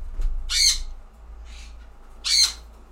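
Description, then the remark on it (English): Two loud, harsh bird squawks about two seconds apart, with a fainter call between them, pet birds calling to each other, one of them, Blue, stuck in a bedroom. Low rumble underneath, no talking. “Blue flew off somewhere, and now they're trying to call to each other”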